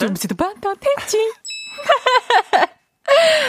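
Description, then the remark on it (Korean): A voice imitates a sneeze for a radio sound quiz, ending in a sharp, breathy burst, amid bursts of vocal sounds and a bright bell-like ding partway through. “재채기 소리죠, 재채기 소리.”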